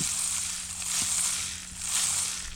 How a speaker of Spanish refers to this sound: Puedo imaginar desde que estoy en una, como si fuera una pequeña balsa, y estoy en el mar y está haciendo este sonido. Bien. Ok, otra cosa que es importante con el palo de lluvia, puedo cortar energía negativa.